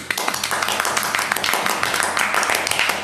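A small group gives a steady burst of applause for the winner of a game. Dense overlapping claps form a continuous crackling wash for about three seconds, with faint voices mixed underneath.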